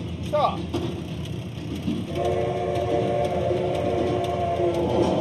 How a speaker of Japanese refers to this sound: 今おそらくあ橋の音してますよ橋の